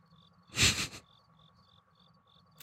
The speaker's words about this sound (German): jetzt noch das Zirpen einfügen. ja, da muss, da muss ich das Zirpen einfügen.